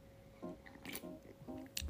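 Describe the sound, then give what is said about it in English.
Someone takes a quiet sip of a drink, with soft gulping swallows and a couple of brief wet mouth clicks over a faint steady hum. “Let me uh, take a sip here.”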